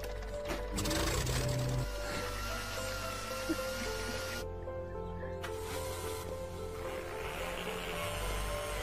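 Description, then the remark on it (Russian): A steam engine runs steadily with a loud, continuous mechanical rumble and hiss, steam briefly cutting out partway through before the chugging noise resumes at full strength. “паровой двигатель.”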